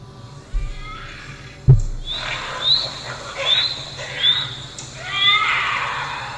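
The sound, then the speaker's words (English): A bobcat screeches in a series of shrill, wavering cries that sound like a wailing baby, repeating every second or so with a few low thumps, without any talking. “That's a bobcat. That's a bobcat. Sounds like a, a baby like screeching.”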